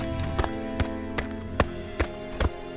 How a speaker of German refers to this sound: sehr, sehr schwache Schritte und siehst vor dir. Menschenschritte? Menschliche Schritte?